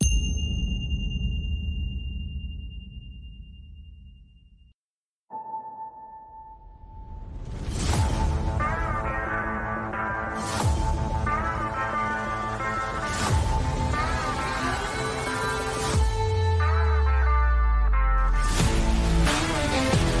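An instrumental opening theme plays alone, starting with sustained tones, then after a brief gap swelling into loud, layered electronic music punctuated by regular whooshing, chiming accents.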